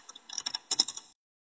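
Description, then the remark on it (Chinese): A quick burst of keyboard typing: a dozen or so light, crisp clicks in an uneven run lasting about a second, then silence. No one speaks. “怎么听见了键盘的声音？”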